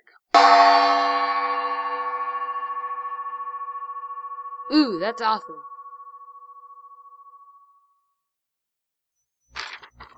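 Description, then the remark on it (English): A single loud gong strike rings out with a rich, shimmering tone that slowly fades over several seconds, while a voice briefly reacts partway through the decay. “It's time it's time, guys, to bang the gong.”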